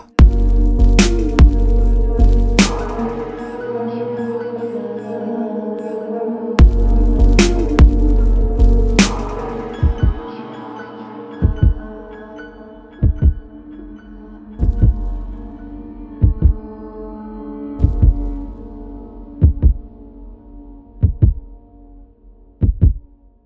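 A short instrumental intro jingle opens with heavy booming bass chords and sustained tones, then settles into a steady, evenly spaced thumping beat that repeats like a heartbeat until it ends. No voices.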